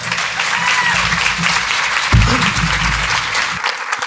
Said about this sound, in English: So please give Brian and Le- Leandro a big warm of applause.